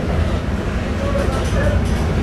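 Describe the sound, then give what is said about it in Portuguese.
Steady, loud low rumble of a bus engine and road noise from inside the moving vehicle, continuous throughout, with faint indistinct voices buried underneath. “Então, é, será que dentro do ônibus dá para vocês me ouvirem?”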